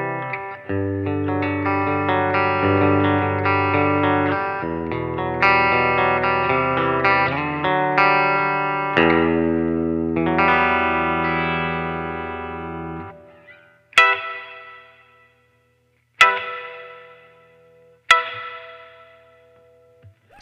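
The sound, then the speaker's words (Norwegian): Distorted electric guitar chords played through a hall reverb effect ring out with a big, spacious reverb, then three single strummed hits each leave a long, wide tail fading into silence. “Og så går vi på hall, så nå er vi enda litt større.”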